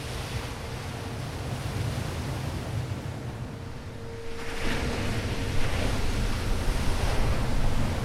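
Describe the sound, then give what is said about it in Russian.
Waves crash against coastal reefs amid squally, gusty wind, a dense, continuous roar of surf and air that swells louder halfway through, with no voices present. “Опять поднялся шквалистый ветер. Волны увеличились и сильно бьются о прибрежные рифы пугающая и одновременно зачаровывающая картина свободы.”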